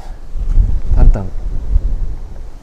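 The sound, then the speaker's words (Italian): Steady wind on a mountainside buffets the microphone with a low, rumbling roar that swells and eases in gusts, and a short burst of a voice cuts through briefly partway in. “però ho il vento giusto”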